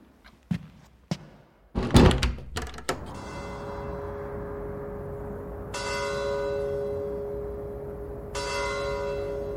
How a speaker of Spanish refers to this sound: Cada noche, cuando la Catedral del Mar toca las campanadas de las 10, salgo a la terraza de mi apartamento, en el Raval de Barcelona